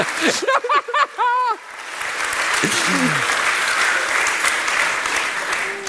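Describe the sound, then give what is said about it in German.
A brief burst of voiced sound, like laughter or exclamation, gives way to steady, dense audience applause that keeps going at an even loudness for several seconds. “Beifall ist zwecklos.”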